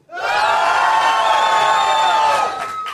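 An audience, cheering on a count of three as a crowd-volume test, erupts into loud, sustained cheering and whooping for about two seconds, many voices shouting together at high pitch before the roar quickly fades out.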